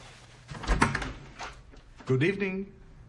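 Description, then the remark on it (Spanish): A door is opened with a soft clunk and a brief rattling scrape, and a few moments later a person's voice speaks a short phrase. “Manu gira quedando de espaldas a la puerta.”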